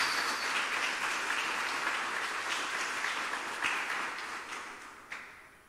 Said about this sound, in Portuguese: Dê um aplauso bem forte ao Messias.